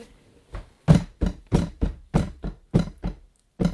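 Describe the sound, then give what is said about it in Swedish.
A series of about ten dull knocks in an uneven walking rhythm, imitating footsteps heard on the upper floor, each thud fairly loud with short pauses between. “Och då hör vi steg på övervåningen och det är, ni bara, ja ah, men det är typ luft det där.”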